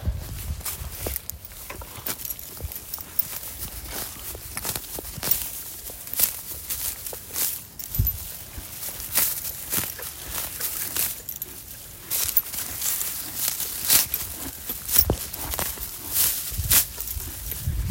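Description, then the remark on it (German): Footsteps crunch through dry, brittle grass in a steady walking rhythm, each step a crisp rustling crackle with no one talking. “Das klingt auch mega professionell wieder mal, weil hier irgendwie so eingetrocknetes Gras ist.”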